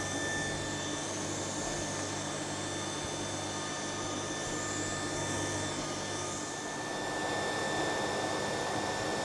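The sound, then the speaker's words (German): A rapier weaving loom is switched on and takes a moment to run up to speed, with a steady, fairly loud mechanical whir and hum, constant throughout with a faint high whine on top, and no voices. “okay, ich schalte mal ein. Ich mhm. weiß nicht, ob, wie man Sehr das dann gern. hört. Braucht mehr Moment, bis er hochgefahren hat.”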